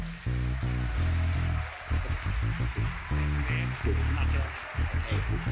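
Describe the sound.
An audience claps steadily in a dense, even wash of applause welcoming the poet laureate of Pomona, holding for several seconds, with louder voices and low tonal sounds rising over it.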